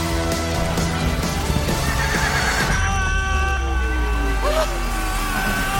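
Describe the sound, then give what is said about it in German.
A horse neighs loudly, a long whinny with shaky rising and falling pitch, while hooves clop underneath and a faint murmur of voices sits in the background. “Wo ist das scheiß Pferd hin?”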